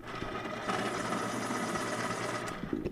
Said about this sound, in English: That was my pencil sharpener. Did you hear it?